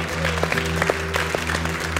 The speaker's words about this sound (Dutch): Can we give God a big clap? Zullen we God een applaus geven?